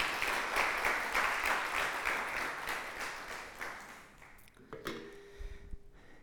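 An audience claps once more for a speaker in a steady burst of applause, dense and bright at first, then thinning out and fading after a few seconds, followed by a short tonal ring and quiet.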